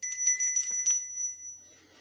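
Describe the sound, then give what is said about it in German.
A bright, high-pitched bell rings in a quick series of strikes, the tones sustaining and then fading out as the ringing stops. No talking, only the bell. “ich höre eine Glocke, was ist denn da los?”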